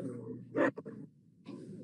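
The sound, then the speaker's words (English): A dog lets out one sharp bark followed by a quicker, softer yelp, against a steady low background hum. “The dogs are barking.”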